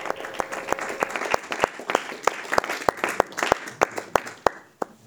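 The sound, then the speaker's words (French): Construction work noise: a steady run of sharp banging impacts, about three per second, over a constant noisy background, without any talking. “Cette semaine, c'est un oracle court, euh, caché euh, derrière la ponderie, avec un peu de bruit de travaux.”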